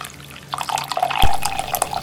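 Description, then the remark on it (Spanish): Coffee pouring into a cup, with a steady trickle that swells into a fuller splash about midway and continues briefly. No voices are heard. “Nada como un buen café para tomar aliento y enfrentar nuestra rutina diaria.”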